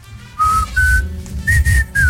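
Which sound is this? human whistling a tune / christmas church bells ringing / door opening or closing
human whistling a tune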